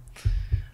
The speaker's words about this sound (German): Man hört das Klopfen hier.